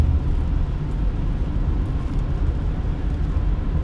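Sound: car driving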